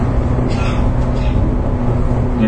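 Steady, loud interior rumble of a JR 415 series electric train, a local service on the Nippō Line from Kokura to Nakatsu, with a low droning motor hum and constant track noise throughout, no voices.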